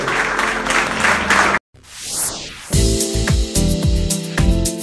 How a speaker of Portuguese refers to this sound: Dá uma salva de palmas.